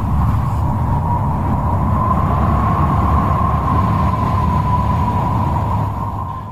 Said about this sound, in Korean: 그러자 동쪽 사막에서부터 뜨거운 바람이 몰려오기 시작했습니다.